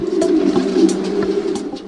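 Several pigeons coo continuously in a low, throaty murmur, a dense overlapping warble, with faint flutters and brief higher clicks scattered through.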